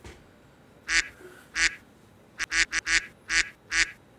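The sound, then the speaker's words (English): A voice imitates a duck, letting out a series of nasal quacks, two spaced apart and then a quicker run of five or six, loud. “That's a quack sound if you couldn't tell.”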